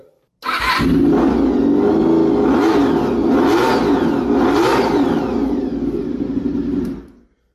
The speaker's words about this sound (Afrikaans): Nou as daai nie vir jou hoendervleis gee nie, dan moet jy gaan kyk of jy 'n polslag het, want 'n uh, eh, so W4 enjin klink net ongelooflik.